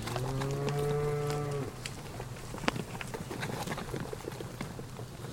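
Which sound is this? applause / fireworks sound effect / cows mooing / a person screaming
cows mooing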